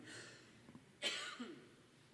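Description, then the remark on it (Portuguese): A single short cough bursts out midway through an otherwise quiet stretch, followed by a faint breathy tail; no one speaks. “Você tosse na hora que você não tem que tossir.”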